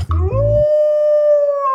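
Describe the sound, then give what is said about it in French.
A single long, eerie werewolf howl rises quickly and then holds a steady, piercing pitch, loud, with a brief low rumble at the very start. “Peut-être que d'autres poditeurs ont le même problème, alors on va se débarrasser une bonne fois pour toutes de la peur des loups”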